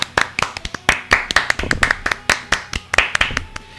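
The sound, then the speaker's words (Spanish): A short burst of applause: a few people clapping in a brisk, fairly even rhythm of sharp, distinct claps for nearly four seconds, with no talking. Applause for the winner of the Michigan Challenge contest. “Vamos a dedicarle un aplauso.”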